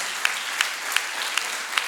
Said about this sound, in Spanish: Aleluya, levántese aplauso, levántese aplauso, que es para el Rey de Reyes y el Señor de Señores.